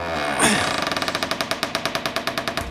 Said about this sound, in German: Ja, wollen wir für das Feedback vielleicht mal in die Kirche hineingehen? Warte, ich mach mal die, die Tür mal auf.